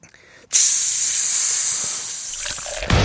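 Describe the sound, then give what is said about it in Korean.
A fizzing cider (lemon-lime soda) sound effect: after a brief quiet moment, a loud, bright hiss bursts in and holds steady for about two and a half seconds, thinning slightly before a final shift near the end. “네, 사이다 시원하게 드리도록 하겠습니다. 네. 자, 어 사, 사이다 소리가 안 나네요.”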